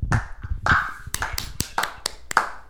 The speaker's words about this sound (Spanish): Esa es una de las tres personas que va a escuchar el post que estaba aplaudiendo ahí.